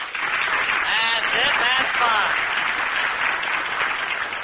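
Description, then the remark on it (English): Sustained applause from a studio audience for the next contestants, a dense, steady clatter of many hands clapping at once, with some voices and cheers mixed in. “Let's give them a great big hand, huh?”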